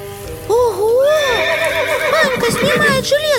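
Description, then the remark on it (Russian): A horse whinnies loudly, its high wavering neigh rising and trembling for a few seconds, with a faint background murmur and what may be light hoof movement. “Сажает его на коня”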